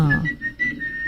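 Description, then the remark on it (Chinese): An AI-generated whistle, produced by a computer from a text description: a steady, high-pitched whistle holds one sustained tone for about a second, wavering slightly in loudness, with a brief low thump at the start and no voices. “比方说，呃，我想要一个吹口哨的声音，我现在有一个这段文字描述，对不对？”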